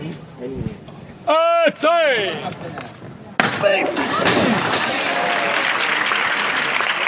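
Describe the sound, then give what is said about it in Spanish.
A voice calls out briefly, then a crowd bursts into loud, dense applause that keeps going steadily to the end, with voices mixed into the clapping, applauding the men lifting the float of the Hermandad de los Gitanos during a street procession on Holy Monday. “Con fuerza, con garra, los hombres de Falidías que reciben el aplauso nueva levantada dedicada a la voz de bronce, al capataz honorario de la Hermandad de los Gitanos, a Juan Manuel Martín, muy presente en este lunes santo”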